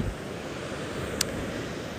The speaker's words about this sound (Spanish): Y me he venido aquí al mar mientras se terminaba algo que tenía que esperar. Y estaba escuchando las olas y creo que va a ser la mejor banda sonora que os puedo ofrecer.